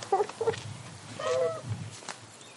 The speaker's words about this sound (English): this is like the chicken tree. This is where they sleep.